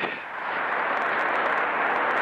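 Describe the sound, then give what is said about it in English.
A voice imitates an explosion with a loud, sustained, hissing rush of breathy noise that holds steady for about two seconds, alone, with no talking. “we begin to hear explosions around us. You know, like”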